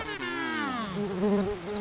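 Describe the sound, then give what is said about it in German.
A mosquito buzzes for a couple of seconds, a continuous whining drone whose pitch wavers and dips as it moves, with no voices around it. “Ich sag es dir, es ist die Mücke.”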